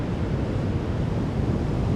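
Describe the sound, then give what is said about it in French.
Ocean waves 2–3 metres high crashing on a golden sandy beach near Bayonne in fog, in a steady, continuous rumble, loud, with a light wind blowing from the land buffeting the microphone and no voices. “les vagues sont un peu stoppées en l'air avant de s'écraser sur le sable.”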